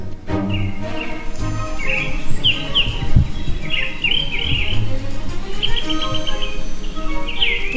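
Birds sing in a steady series of bright chirps and whistled phrases, clear, over a continuous low background hum with no voices.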